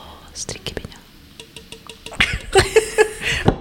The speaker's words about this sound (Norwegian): Her er lyden av Pepsi Max